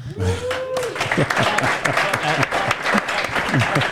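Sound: applause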